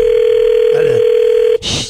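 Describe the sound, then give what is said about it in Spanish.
A steady, mid-pitched telephone dial tone of an outgoing call being placed hums without a break for about a second and a half, with a faint voice briefly underneath, then cuts off abruptly into a short burst of noisy crackle. “Vamos a marcarle a esta chava.”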